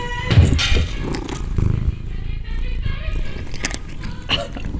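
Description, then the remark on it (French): A cat named John purrs, a continuous low rumbling vibration throughout, broken by a few brief louder rustling bursts. “Ah, ah, John, chat ingrat.”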